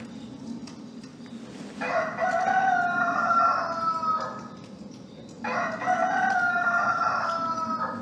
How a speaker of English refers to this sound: As he hears the rooster crowing, it says that Simon Peter suddenly remembers something.